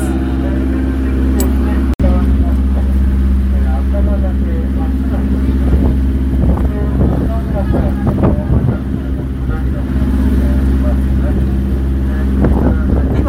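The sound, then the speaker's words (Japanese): A sightseeing boat's engine drones steadily with a low, constant rumble as it cruises out of Atami harbor, Japan, on a sunny, warm day, sea wind buffeting underneath and faint chatter and calls drifting over it, plus one sharp click early on. “今日も本当天気がいいです暖かくてねこういった陽気の中で潮風海風を感じながら船旅が30分楽しめるようになっています”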